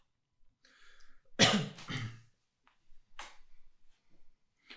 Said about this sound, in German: Aber jetzt hast du schon gehustet. ich weiß nicht, ob wir das rausschneiden.